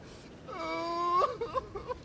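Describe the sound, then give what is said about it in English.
A voice lets out a long, steady wail lasting under a second, then breaks into short, choppy sobbing sounds, moderately loud with no talking. It sounds like a performed imitation of a boy crying as he sits under a tree in a forest in the evening. “In the evening he sat under a tree and started to cry.”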